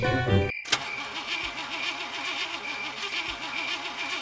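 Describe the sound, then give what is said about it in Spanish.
The engine of a car that broke down right after parking cranks over and over with a rhythmic, wavering whine but never catches, after a brief burst of steady engine hum and a short cut at the start. “¿Cómo puede ser que se te descompone el auto ni bien estacionás?”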